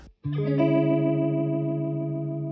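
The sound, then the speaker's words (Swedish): A sustained instrument chord, after a chord change, with a swirling, wavering Leslie rotating-speaker effect blended with an equal amount of dry signal, starting after a short silence and holding steady at a moderate level. No one speaks. “Leslie-ljudet. Ja, Ja, lite grann. Och sen så lägger man på lika mycket torrsignal igen då.”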